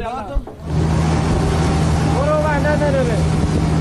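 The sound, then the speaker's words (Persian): A bulldozer engine roars loudly, kicking in after a brief quiet moment and holding a deep, steady, continuous rumble with a whining undertone; the bulldozer is heading to flood-hit areas of Sistan and Baluchestan, Iran, carrying ballot boxes for the 11 Esfand election rather than relief. “این هم قررش بلدوزری است که نه برای امداد رسانی بلکه برای رساندن صندوق رأیگیری انتخابات 11 اسفند به مناطق سیل زده می رود.”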